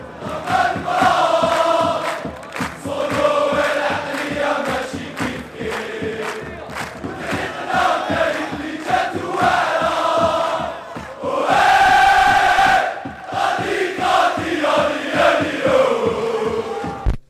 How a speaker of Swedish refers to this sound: Och vi kan lyssna lite på hur det låter på, på läktarna först i, i Alger när USM spelar.